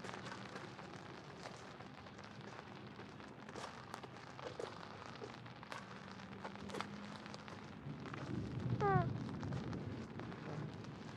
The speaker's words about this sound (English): That's thunder. Yeah, that's thunder.